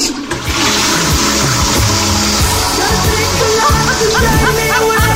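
A loud, steady rush of water from the flush of a Japanese Toto toilet runs for about five seconds, layered with warbling, shifting tones like a pump or a melody. No one speaks.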